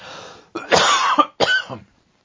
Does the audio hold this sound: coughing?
yes